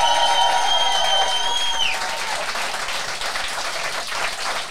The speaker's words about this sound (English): Un bon main d'applaudissements à vous d'être ici ce soir.